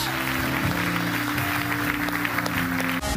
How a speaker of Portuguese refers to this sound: E será que podemos dar uma salva de palmas a todas estas pessoas que tomaram esta decisão? Será que podemos dar uma salva de palmas mais forte a todas estas pessoas e a Jesus por aquilo que ele fez hoje?